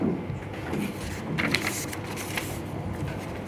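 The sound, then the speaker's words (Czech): Dry rustling and crinkling of paper sheets being handled and shuffled while someone searches for a page, with a few sharper flicks in the middle, continuous for several seconds with no one speaking. “já se omlouvám za ztrátu papíru.”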